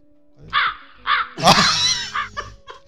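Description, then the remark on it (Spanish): Several harsh crow caws in quick succession, loud, with a longer ragged squawk in the middle and a few shorter calls trailing off, over a faint steady hum. “Mandan los cuervos ahí.”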